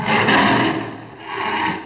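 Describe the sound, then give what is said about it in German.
A person growls in a low, rasping voice, imitating an angry tigress, in two sustained rumbling bursts with a brief dip between them, fairly loud. “und steigt also hinten drauf und dann fängt die aber an zu knurren. Die Tigerfrau.”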